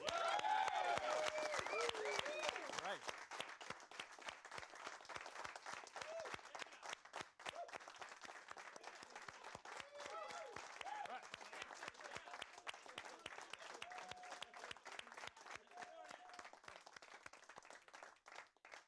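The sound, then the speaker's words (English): Sustained applause from many hands, a dense crackling patter that stays fairly loud for the whole stretch, strongest at the start, with faint voices and brief whoops mixed in. “You feel like you're applauding every time.”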